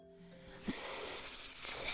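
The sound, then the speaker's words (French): A snake rising up in a dark, muddy swamp hisses in a long, steady, breathy rush of air lasting about two seconds, moderately loud, with a brief soft bump near the start and no voices. “Devant lui se dresse alors un serpent.”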